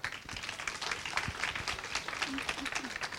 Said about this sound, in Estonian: nii et äh, kuidas ehitada investeerimisportfelli lastele? aplausiga võtame vastu.